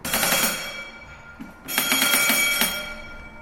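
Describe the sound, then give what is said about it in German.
A steamship's brass engine order telegraph with a lever, used to signal from the bridge to the engine room (e.g. half speed for docking), rings in two rapid, jangling bursts, bright and metallic, with a brief gap between them and a ringing decay at the end. No voices are present. “steht ein Maschinentelegraph, wie ihn jedes Dampfschiff hatte.”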